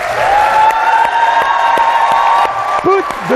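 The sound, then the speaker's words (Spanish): A large audience of about a thousand people in a movie theater cheers loudly and continuously as Tom Cruise enters, with sustained whooping and shouting over a dense wash of applause, some higher voices rising above the crowd near the end. “Vamos a escuchar cómo entraba en esa sala de mil personas, le daban así la bienvenida.”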